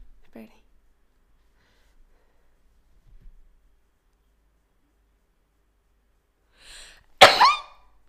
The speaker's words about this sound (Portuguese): Um, mas, ai, tenho um espirrinho.